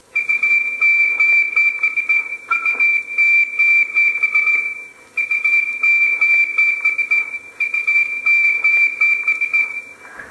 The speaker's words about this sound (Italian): Quello che avete ascoltato è un SOS, uno spunto per lanciare un messaggio di aiuto, la prima puntata radiofonica di Radio Sicilia Libera